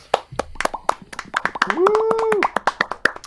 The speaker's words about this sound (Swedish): En applåd där.